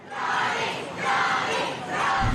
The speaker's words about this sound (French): À l'annonce du verdict, les fans de Johnny Depp, pancarte à la main, laissent éclater leur joie.